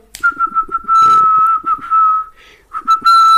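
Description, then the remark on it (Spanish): A person whistles to call birds, a steady, high tone broken into quick chirpy pulses and then long held notes. No one speaks. “Estoy llamando a los pájaros.”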